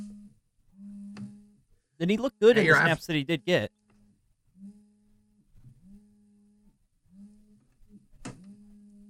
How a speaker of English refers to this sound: is that your phone ringing?